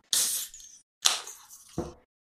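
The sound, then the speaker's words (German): A sharp metallic pop and hiss as a beer can with a nitrogen widget (a plastic ball) is cracked open, followed by a second fizzing burst and a brief foaming rush as the beer foams up, with no talking. “wenn du das öffnest, wird der Stickstoff aus einer Plastikkugel rausgeschossen sozusagen”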